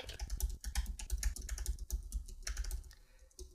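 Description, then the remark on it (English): Rapid, uneven clatter of typing on a computer keyboard while searching Google for how to pronounce the word "penalizable", fairly loud, with quick bursts of keystrokes and brief pauses, no voices. “You guys can hang tight with me while I Google it.”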